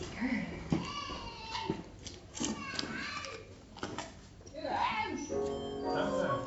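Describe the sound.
Two young children squabble in the morning, their raised, whiny voices overlapping and breaking into crying and wailing in uneven bursts that run through the whole stretch.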